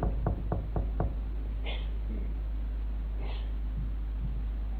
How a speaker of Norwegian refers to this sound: Så banket det på døren.